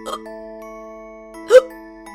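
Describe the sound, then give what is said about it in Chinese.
A short, gurgly burp effect of a piglet after eating a whole cake and drinking lemon soda pops up over a sustained, steady musical tone, with a softer burst at the start and a louder, slightly pitched one about halfway through. “小猪打了个饱嗝，心满意足的睡着了。”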